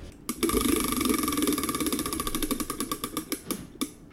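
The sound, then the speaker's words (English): A prize wheel is spun, giving a rapid, steady run of ratcheting clicks that gradually slow and spread apart until it stops, fairly loud, with no talking. “Josh, go ahead and spin the wheel.”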